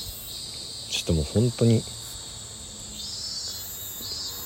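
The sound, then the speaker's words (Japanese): Cicadas in a park at nearly 11 p.m. in summer, at the end of July, drone in a steady, high, shimmering buzz that fills the whole stretch, loud and continuous outdoors, while a man speaks a few brief words over it near the start. “いや嘘でしょ夜もう11時近いんですけどね公園でセミがわんさか鳴いてます夏ですね”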